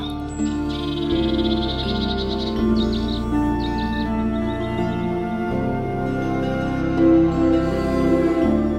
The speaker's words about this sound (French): Toute la nuit, le rossignol chanta.